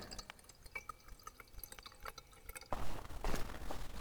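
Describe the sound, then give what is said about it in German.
Scattered water drips and small splashes, then a sudden louder steady rush of water pouring from a watering can that continues to the end, without any voices. “und was es heißt, wenn quasi Gott seine Gießkanne nimmt und unseren Grundwert bei uns einfüllt.”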